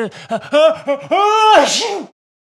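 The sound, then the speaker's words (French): A voice acts out a sneeze: a few short voiced gasps build into a drawn-out rising 'ahh', then a breathy, hissing burst, before silence. “à vos souhaits, répéta Pinocchio.”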